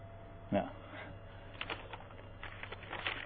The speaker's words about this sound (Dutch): Er komen nog een heleboel mensen binnen, lijkt wel.